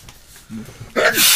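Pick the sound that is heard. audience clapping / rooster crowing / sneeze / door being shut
sneeze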